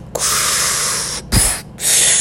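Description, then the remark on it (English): A voice imitates a swimmer's forceful breathing exhale during a swim: three loud, hissing puffs of air, one long blow followed by two shorter bursts, with no talking. “you know, you just get into the rhythm of the sounds of your breath and you just like look up every now and then make sure you're going in the right direction and you just keep you just keep going”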